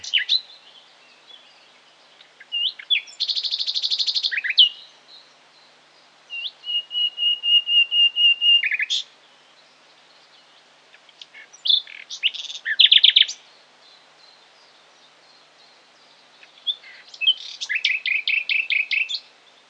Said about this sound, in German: Die Nachtigall führt ein verborgenes Leben in verwachsenen Gärten und Parks, in Dickichten sowie in unterholzreichen Laub- und Mischwäldern. Äußerlich eher unscheinbar wurde das gut sperlingsgroße Tier durch seinen Gesang berühmt,